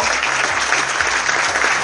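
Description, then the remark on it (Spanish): An audience applauds steadily at the second Festival de Cine Platense awards, for the winner of Best One-Minute Video, El caso de Edison: a dense wash of many hands clapping at an even loudness throughout, with no voices standing out. “Fuerte el aplauso.”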